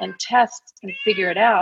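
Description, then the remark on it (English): A domestic cat meows, a short rising-and-falling cry that overlaps a person talking, with the meow standing out clearly near the end. “That's our cat meowing.”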